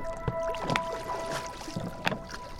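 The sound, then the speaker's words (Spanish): A small boat glides with the current along river water, with paddle splashes and knocks at irregular intervals over a steady faint hum and gentle lapping. “Con cuidado, navega a favor de la corriente.”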